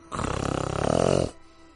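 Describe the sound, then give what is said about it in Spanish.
A person imitates a growl-like sound heard just after getting on a bicycle: one rough, rattling vocal rumble lasting about a second, fairly loud, with a throaty pulsing texture before cutting off. “No, yo dije, fue como un gruñido, pues, weón.”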